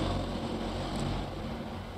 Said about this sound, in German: Eben fuhr mal ein Auto vorbei, zwei Gendarmen gucken ihm nach, gähnen sich an, die Gendarmen in ihren typischen Pellerinen.